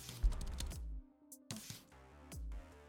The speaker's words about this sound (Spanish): Compré la, Voyager, de eh, la gente de Corsair. Es 17 pulgadas, eh, tiene 2 terabytes de SSD, eh, tiene un teclado mecánico. No sé si pueden escuchar ahí.